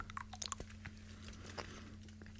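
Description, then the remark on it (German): Chewing of hard, brittle Lindt dark chocolate, 90 percent cocoa, with small crunchy snaps and wet mouth sounds repeating irregularly over a low steady hum, no talking. “er hat uns geschickt eine Lindschokolade, edelbitter mild. 90 Prozent.”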